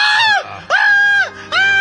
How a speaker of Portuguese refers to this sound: não, calma, não grite, não se acelere. Está nascendo, está nascendo, veja! Nasceu, fique tranquila, e é um menino!